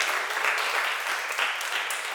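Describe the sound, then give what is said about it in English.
A church audience applauding volunteers who serve and give faithfully: dense, steady clapping from many hands forms a continuous hiss-like wash of sound, holding an even loudness throughout with no voices standing out. “And so, can we just actually give a round of applause for all those who are serving, who are giving faithfully?”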